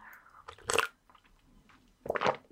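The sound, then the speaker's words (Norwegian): Mouth noises of someone sipping and swallowing coffee into a microphone, with two short, wet bursts about a second and a half apart and quiet pauses between them. “Jeg prøver alt jeg kan å ikke slurpe eller svelge uh, inn i mikrofonen.”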